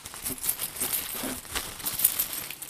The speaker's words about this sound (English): So I'm going to reach into it and draw at random a title. Let's see what it could be. Have a good rummage.